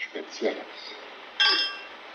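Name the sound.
champagne glasses clinking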